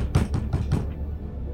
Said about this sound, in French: Et il y a toujours beaucoup, beaucoup de bruit, et là d'un coup vous entendez très très fort à la porte.